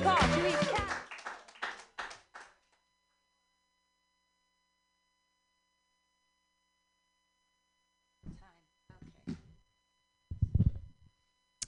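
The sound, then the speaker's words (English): A small audience claps in a brief, scattered burst that fades within a couple of seconds, followed by silence and then a few short bits of talking. “Uh, clap for me. Yay.”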